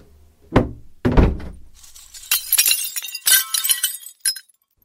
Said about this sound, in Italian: Ho visto la finestra rotta e eh. mi sa che ho finito di rompertela.